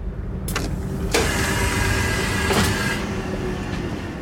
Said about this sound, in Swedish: Onsdagen den 7 juni öser regnet ner på Värnamo tågstation.